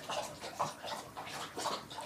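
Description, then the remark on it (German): Molly, a pet, laps water in a steady rhythm, wet splashy slurps arriving about twice a second, moderately loud, with no voices over it. “Oh, das ist übrigens die Molly, die trinkt gerade.”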